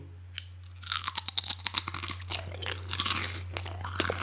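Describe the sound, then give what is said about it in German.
Crisp crunching and chewing of pizza-flavoured potato chips, a rapid series of sharp bites followed by steadier munching, with no talking over it and a low steady hum underneath. “Zehn Minuten später sitzt man hier und dann packt eine Packung Chips auf.”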